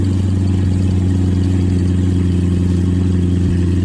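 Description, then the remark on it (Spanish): The engine of a new Corvette C8 sports car runs on its own, a loud, steady, low rumble with strong humming tones that hold an even pitch throughout, with no voices. “Es más, te voy a poner el ruido que trae el motor que trae este.”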